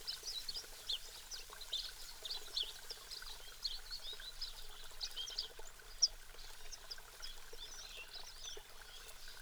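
Birds chirp repeatedly throughout in the shady trees of a desert oasis, with many quick, bright calls over a steady rushing, trickling background like flowing water. No one speaks.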